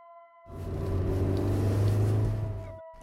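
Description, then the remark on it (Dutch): A car engine rumbles as the car is being parked, rising in from quiet and holding a steady low drone for a couple of seconds before cutting off, with no voices present. “een beetje krap geparkeerd, toch?”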